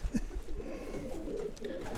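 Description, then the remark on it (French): Soft, low cooing of a pigeon from Belgium rolls on steadily in the background, a murmuring burble from one or more birds, with faint rustling and no talk over it. “Toi, le pigeon là, il a 7 numéros le pigeon là. C'est un pigeon qui vient de Belgique.”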